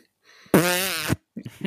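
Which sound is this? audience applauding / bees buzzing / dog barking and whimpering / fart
fart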